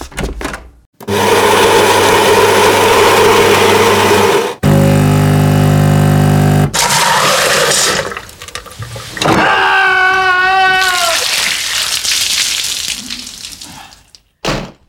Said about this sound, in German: Oh, okay. Das klingt schon so ein bisschen, als ob die Kaffeemaschine kaputt wäre kaputter als das letzte Mal. Ja, ich, ich glaube, irgendwas ist da nicht so ganz in Ordnung.